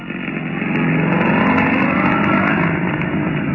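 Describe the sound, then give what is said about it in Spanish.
A modern sports car engine drones steadily and loudly as Calimán drives it along a narrow, dusty, lonely country road at night in dense fog after a storm, a continuous low rumble rising slightly at the start and holding for several seconds without any voices. “Tiempo después, la tormenta había cesado y Calimán conducía hábilmente el moderno auto Sport por aquel camino polvoso y solitario.”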